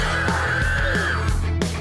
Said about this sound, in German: Und der Uhu schreit laut.